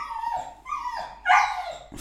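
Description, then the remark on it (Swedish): A male dog whimpers in a series of high, drawn-out whines, each rising and falling in pitch, with the last one louder and sharper than the rest. “fan vad han piper alltså.”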